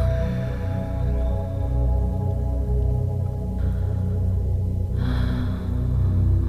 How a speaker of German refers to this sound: Man muss jetzt gar nicht versuchen, unnatürlich tief zu atmen oder dich mir anzupassen, sondern gib einfach deinen Fokus auf deinen Atem. Verlängere ihn vielleicht ein ganz kleines bisschen, aber ohne Druck, so wie es für dich einfach ist.